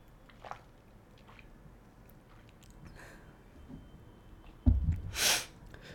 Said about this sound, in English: But yeah, um, let me have a sip of water, man.